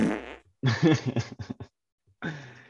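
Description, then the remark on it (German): A loud, sputtering fart sound effect plays from a soundboard in a few bursts, a long flappy blast followed by shorter pops, then one more brief rasp after a pause. “Deine Führzüri. Nein, vom Soundboard.”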